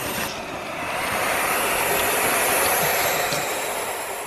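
Barn owl chicks hiss continuously, a harsh, breathy rasp much like radio static. The sound is steady, swelling slightly in the middle and holding for several seconds with no voices.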